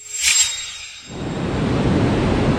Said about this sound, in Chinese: 书页突然开始自己快速的翻动，一阵熟悉的蓝色星星从书里飞出来，布满了整个大厅。只听见嗖的一声，蓝小瑞又进入到了书本里。